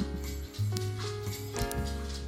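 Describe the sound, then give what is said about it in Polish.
A pet named Pirat stomps across a floor, a few dull, uneven heavy thuds over a low steady hum, with no one talking. “Możesz nie tupać, pirat?”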